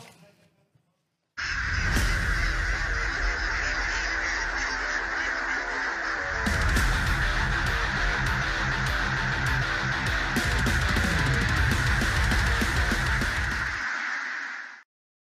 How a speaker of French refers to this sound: Un quiz, ça vous dit Oui. Oh oui. Allez. Allez, jingle.